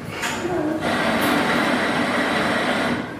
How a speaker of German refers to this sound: Man hört, ich sitze tatsächlich in einem Café.